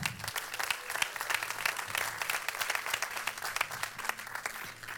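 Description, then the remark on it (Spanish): An audience at Casa de Jesús church bursts into loud, sustained applause, many hands clapping in a dense, continuous patter that holds steady for the whole stretch, with a faint murmur of voices underneath. “Vamos a dar un fuerte aplauso, a Casa de Jesús.”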